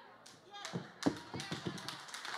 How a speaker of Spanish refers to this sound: Si le va a dar el aplauso, dáselo bien. Dáselo bien.